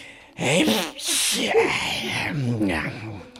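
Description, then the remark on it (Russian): A person playfully imitates a mole's sneeze: a couple of sharp, breathy bursts mixed with squeaky voiced sounds, fairly loud, lasting a few seconds. “Почихать как чихнул разными животными.”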